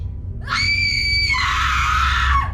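A single loud, sustained scream of a person falling from a balcony, lasting about two seconds, its pitch dropping abruptly halfway through before fading out, over a low rumbling background.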